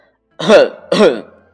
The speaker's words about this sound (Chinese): 高登清了清嗓子，故意问托马斯：“你找到那艘太空船了？”